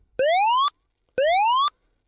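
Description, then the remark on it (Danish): An alarm sound signalling that a contest is starting plays twice, each a half-second electronic tone sweeping upward in pitch with a sharp start and stop, separated by a brief pause. No one speaks over it. “Det der, det betyder alarm.”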